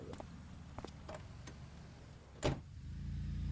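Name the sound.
getting into a car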